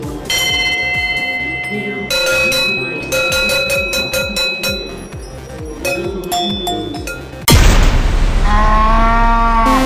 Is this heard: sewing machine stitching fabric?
no